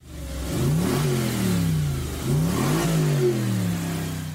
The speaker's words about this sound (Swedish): Bilen gick förbaskat bra, framförallt när det var snö och vinter. V8 hade ett sobert europeiskt rytande och den sexväxlade lådan, det var en smidig enhet att hantera.